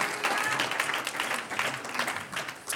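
An audience applauds the Lord at a church service with steady, dense clapping that stays fairly even in loudness throughout, a continuous patter of many hands with no voices standing out.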